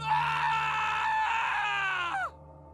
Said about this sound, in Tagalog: Pupunta na sana kami sa Nyogan palabas ng resort nang biglang pumailan lang ang malakas na sigaw ng kapatid ko mula sa kung saan.